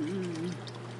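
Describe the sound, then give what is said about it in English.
Water pours steadily into a bowl for the dogs, a continuous splashing stream with a rising gurgle, lasting about a second with no talking. “Water for the doggies.”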